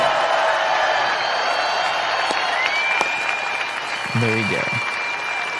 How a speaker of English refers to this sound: The cheering, the applause, the fireworks followed